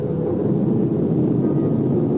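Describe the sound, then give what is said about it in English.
A jet aircraft coming in to land, heard as a steady, loud, low roaring rumble that fills the whole stretch without letting up. No voices. “Bruxton Biotics held its breath and waited for him noon, and a jet gunned in out of the sky and landed in front of the main gate.”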